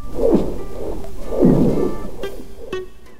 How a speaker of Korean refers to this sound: 임진강의 얼음이 삐걱거리기도 하고 갈라지기도 하며 으르렁대며 소리를 만듭니다. 얼음 덮인 강이나 호수는 하나의 거대한 북과 같습니다.